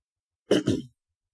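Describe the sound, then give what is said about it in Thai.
Two quick coughs in a row, a sharp burst followed by a slightly longer, rougher one, then silence. No one speaks. “ขอโทษครับไอนิดหน่อยนะครับ”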